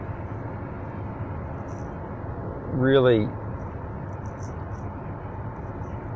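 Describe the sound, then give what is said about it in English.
Steady, low road rumble from inside a car being driven to music gigs on August 20, 2019, even and continuous, with one brief spoken word rising over it midway. “I'm um, I'm driving to more music gigs today, so you might hear the traffic behind me.”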